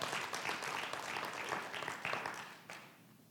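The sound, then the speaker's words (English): A crowd claps steadily for a few seconds, a dense wash of many hands applauding together before the clapping thins and fades out. “It's a good place to clap.”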